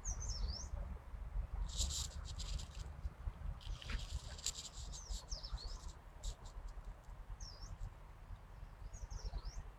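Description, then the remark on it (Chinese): A yellow-browed warbler sings in a tree, giving thin, high-pitched chirps and short buzzy phrases, repeated at irregular intervals over a steady low rumble, with no voices. “黄眉柳莺在树上鸣唱”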